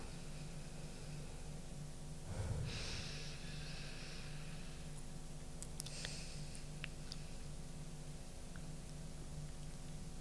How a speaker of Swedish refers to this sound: Så sätt er bekvämt, sluter ögonen och så ska jag be er att ta ett djupt andetag som går från näsan ner i magen och andas ut igen. Ta tre djupa andetag.